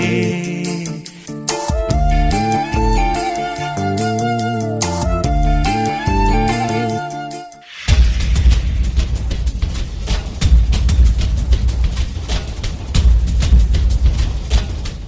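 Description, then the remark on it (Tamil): A song plays loudly on the Tamil Murasam radio programme with no talking, opening on steady melodic phrases and held notes, then abruptly switching midway into a denser, busier passage driven by strong percussion. “ஆனால் அதுக்கு முதல் ஒரு பாடலை ஒரு பாடலை கேட்டுட்டு வரும்”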